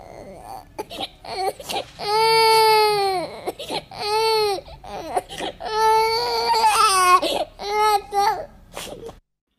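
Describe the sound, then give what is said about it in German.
A princess cries loudly, after her ball rolled into a deep well, in a series of drawn-out wailing sobs broken by short gasping pauses, growing louder, more frantic and insistent toward the end. “Da fing die Prinzessin an zu weinen und weinte immer lauter und konnte sich gar nicht mehr trösten.”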